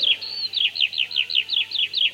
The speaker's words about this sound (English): They saw a skylark. In fact, they heard a skylark. A skylark is one of the only birds that sings in the darkness.